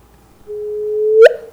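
Recorded background noise from before the signal gives way to a steady, slightly rising tone, which ends in one short, sharp signal burst standing out above the noise for about a tenth of a second, about six cycles with a period shortening from three hundredths to one hundredth of a second. No one speaks.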